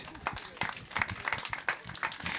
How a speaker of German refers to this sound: Und ganz ehrlich, wir machen hier ein bisschen Spaß, aber eigentlich ist es doch ganz cool, dass man so regional irgendwie helfen kann. Ne? Dankeschön. Ist ein Applaus wert, finde ich.